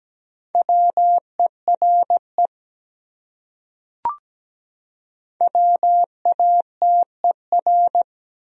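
A steady sine tone keys out Morse code at 17 words per minute in crisp dots and dashes at a moderate pace, two bursts of characters separated by a pause with a faint click, no voices.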